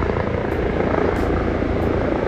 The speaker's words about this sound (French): Je suis désolé pour tous les hélicoptères qui passent au-dessus de moi. Euh, c'est infernal. Je sais pas, il passe la tondeuse dans les nuages.